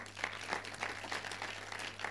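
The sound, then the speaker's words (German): A crowd at a church service applauds the team called to the front, with steady, dense clapping that holds at an even level throughout, a faint low hum underneath and no one speaking. “Ihr könnt ihnen mal einen Applaus geben.”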